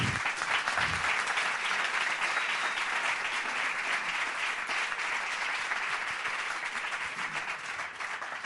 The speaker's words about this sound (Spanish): Un fuerte aplauso.